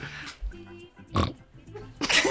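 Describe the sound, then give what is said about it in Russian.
A pig grunts and oinks in short bursts, with two loud, rough snorts standing out between lower, buzzing grunts, fairly clear. “Свинья. Свинья. Правильно.”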